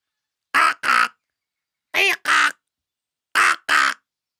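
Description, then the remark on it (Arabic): A crow caws its daily morning call six times in three evenly spaced pairs, each call harsh, raspy and loud, with short silences between the pairs and no other sound. “واصل كاكو نعيبه اليومي واستمر ثعلبوط يخاف من طلوع الصباح وصار يحشو اذنيه بعيدان واوراق شجر ولكن ذلك لم يمنع صوت النعيب من زيارته مع كل صباح”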